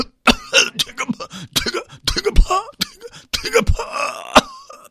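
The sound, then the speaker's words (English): A person coughs and sputters repeatedly in loud bursts, deliberately imitating a worn-out gasoline car engine after 250,000 miles struggling to run, with a wheezy, rasping tail near the end. “This is what your car sounds like after 250,000 miles with this gas engine.”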